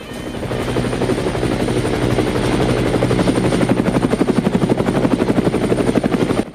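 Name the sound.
helicopter rotor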